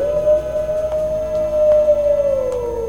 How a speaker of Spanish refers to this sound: ¿Quién no va a tener miedo al ver un cielo completamente estrellado? Escuchar a los coyotes a lo lejos